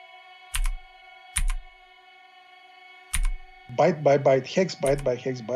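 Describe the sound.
Three separate, sharp keyboard clicks land at uneven intervals over a steady electrical hum as someone types up a hex dump printout from an infected computer, and then a person begins talking over the last moments.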